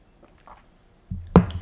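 A single sip from a drink, a short wet slurp with a soft click near the end, after a moment of near silence.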